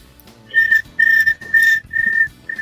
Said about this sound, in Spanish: Gracias con los grillos, gracias a los grillos, ya.